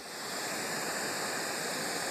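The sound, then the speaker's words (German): Steady, hissing radio static from the cosmic microwave background radiation, picked up by antennas, with no voices: a broad even wash of noise weighted toward the high end, fading in briefly at the start and then holding constant. “Ah, das ist die Mikrowellenhintergrundstrahlung? Okay. Ja, das ist eben diese Strahlung, die wir mit unseren Antennen heutzutage noch auffangen.”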